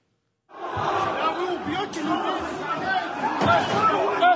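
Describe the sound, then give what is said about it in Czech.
A large, agitated crowd of hundreds of young men shouts and clamors continuously while storming the international terminal of Makhachkala airport, many overlapping voices forming a loud, dense roar of chatter with occasional thuds and bangs underneath. “Prosklené vstupní dveře mezinárodního terminálu letiště v Machačkale nevydržely nápor davu.”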